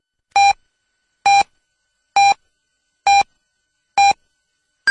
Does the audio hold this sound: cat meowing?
no